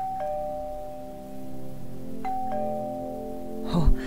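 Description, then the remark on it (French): A doorbell at the front door of a small country château chimes, first a single sustained tone and then a two-note ding-dong about two seconds later, each ringing out clearly and fading slowly, followed by a short muffled thump. “Va, dirige-toi vers la porte d'entrée et sonne la cloche.”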